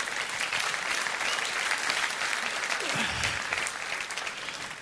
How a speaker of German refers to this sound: Ein Applaus